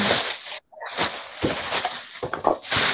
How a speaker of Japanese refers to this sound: ピザ届いた、ピザ、ピザ届いたんだけど、なんかもうビニール音みたいなのがさっきからガシャガシャしてたけど。